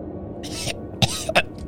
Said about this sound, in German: Auf dem Boden liegend hustet Roglaf Blut.